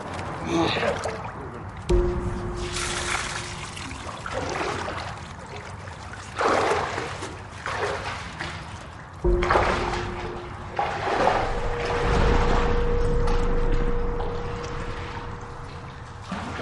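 Water pours and splashes in several rushing bursts, fairly loud, over a steady mechanical hum, with faint voices in the background.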